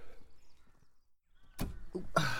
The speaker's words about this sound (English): Hmm, sounds suspiciously like a car door.